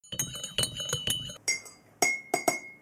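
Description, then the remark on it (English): A spoon stirs tea with a lot of sugar in a mug of hot water: a quick run of bright, ringing clinks, then a few slower separate taps against the side, with no talking. “So he brings some hot water in a couple of mugs, puts a lot of sugar and tea in one of the mugs, stirs it,”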